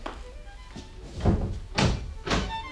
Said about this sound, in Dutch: Probeer eens of de deur open is, mhm.